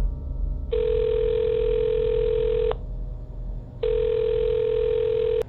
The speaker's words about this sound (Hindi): फिर सोचते हुए उसने नंबर डायल कर दिया